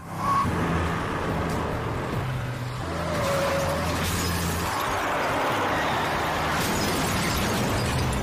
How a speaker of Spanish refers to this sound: Alrededor de la medianoche, un hombre estaba desempacando sus cajas cuando oyó el sonido de un auto que se dirigía hacia su casa.